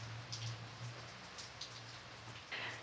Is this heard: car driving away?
no